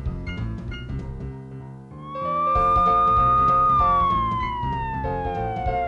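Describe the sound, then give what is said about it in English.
A fire engine siren wails in about two seconds in, holding a high, loud tone before gliding slowly downward, sounding over a busy background of music. “Look, here comes a fire engine, says one little monkey.”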